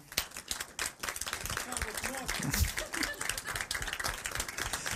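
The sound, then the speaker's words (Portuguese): Audience applause for the film Il Postino at a film club session: a steady, dense patter of many hands clapping for several seconds, loud, with some voices murmuring underneath. “O filme é ali, numa é sala de palmas para o Postino.”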